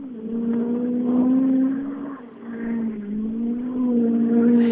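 A loud rally car engine revs hard and steadily at full speed along a short straight, its pitch rising and dipping slightly, with a brief easing around the middle before surging again.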